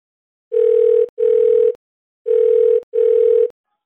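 A telephone ringback tone sounds twice in a double-pulse pattern, two short steady electronic beeps, a pause, then two more. It is loud and clear with no talking.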